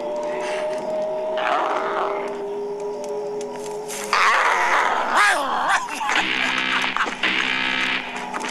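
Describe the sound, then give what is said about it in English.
A low, rough growl rumbles for several seconds, then breaks into warbling, choppy bursts that turn into a harsh, laughing cackle, loud, with no talking over it. “He runs out to like a bush and he can't and the barking has stopped so as soon as he gets close to the bush he hears like like a growling noise, but if you listen, the growling turns into a laugh,”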